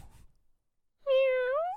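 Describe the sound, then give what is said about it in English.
A single drawn-out meow, bright and fairly loud, made by a person imitating a cat, rising slightly in pitch at the end after a brief quiet pause. “Did you say me or meow?”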